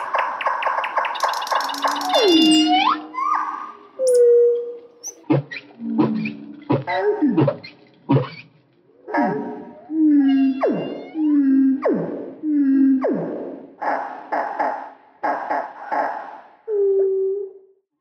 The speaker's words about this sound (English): There's the actual whale to compare.